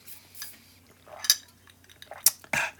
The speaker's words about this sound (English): We got a straw today, so you guys you can hear the ice. You guys won't hear me be hear me sipping my coffee. Hear me be sipping, yeah, hundred percent.